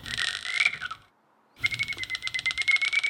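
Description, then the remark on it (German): Rapid clicking bursts of very high ultrasonic bat echolocation calls, emitted in flight and made audible by a special detector device: a fast dry ticking train with a brief pause in the middle, fairly loud, no voices. “Mit einem speziellen Gerät kann man diese Töne aber hörbar machen. Das klingt dann so.”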